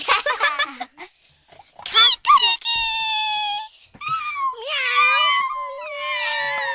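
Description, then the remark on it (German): A child's voice imitates a cat meowing in an animal-sound guessing game: a few short squeaky cries, then two long, wavering, drawn-out meows, fairly loud with no other talk. “Was war das jetzt? Katze.”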